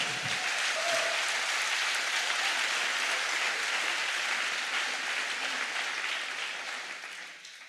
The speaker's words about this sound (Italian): Se dovete applaudire fatelo buono o niente.